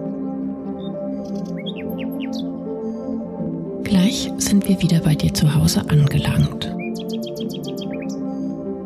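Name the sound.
nightingale singing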